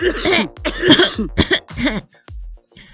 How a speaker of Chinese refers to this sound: 好浓的烟呐、啊！阿告布谷呛得直咳嗽